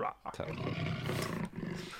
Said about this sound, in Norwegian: Den beste tigerlyden som er.